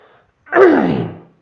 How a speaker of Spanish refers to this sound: Uf, lo siento por la tos.